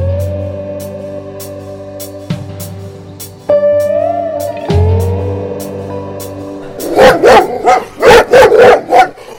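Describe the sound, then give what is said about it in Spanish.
Dogs barking in a quick, loud flurry of about six sharp barks near the end, after a long stretch of steady, whining tones. “¡Controlé esos animales que estoy tratando de dormir!”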